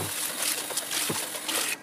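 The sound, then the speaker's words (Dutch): A steady rush of tap water splashing and drumming against a hollow container, the coffee-grounds bin of a coffee machine being rinsed clean under the tap, fairly loud, with small sloshing shifts as it is turned, cutting off abruptly just before the end. “En ook deze bak maak ik schoon onder de kraan.”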